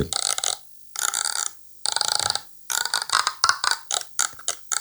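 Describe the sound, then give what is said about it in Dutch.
A forest devil (bosduivel) instrument being played, giving loud, raspy, croaking groans: three long drawn-out calls, then a quicker run of shorter, stuttering bursts, with no voices. “Schrik aan Ja, ik, ik, werd een beetje bang van die bosduivel. maar, ja. maar hij kan ook heel lief klinken hoor.”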